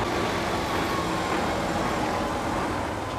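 A heavy concrete mixer truck drives past on a loud street near a construction site, a steady loud roar of engine and road noise filling the whole moment with no voices.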